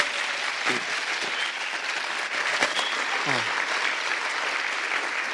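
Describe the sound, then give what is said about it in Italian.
Sustained audience applause for the professor before a lecture fills the whole stretch, a dense, steady patter of many hands clapping at an even loudness, with a few faint voices and murmurs mixed underneath. “Un applauso al professore.”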